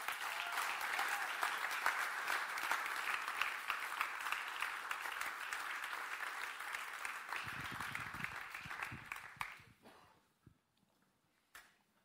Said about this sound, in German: Lassen Sie ihm mal einen großen Applaus geben.